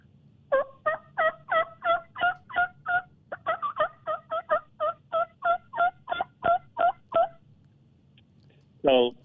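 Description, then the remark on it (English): A rapid, evenly paced run of about twenty raspy yelps imitating a hen turkey, blown on a double mouth reed that is also used for elk bugling, loud, followed after a short pause by one brief rising squeal. “And then that same reed in my mouth, I can do a uh, hen turkey call with.”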